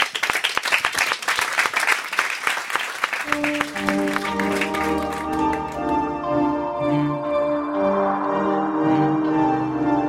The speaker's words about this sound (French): Et on l'applaudit sur France Inter.